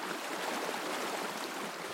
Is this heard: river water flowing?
yes